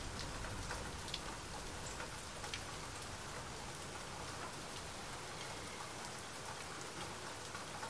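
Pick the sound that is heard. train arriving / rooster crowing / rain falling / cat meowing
rain falling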